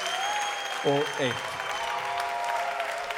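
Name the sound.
audience applause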